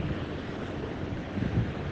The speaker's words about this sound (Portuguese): E aqui na praia, com barulho do vento, do mar, passa um helicóptero, é claro, a tecnosfera está aqui também, né?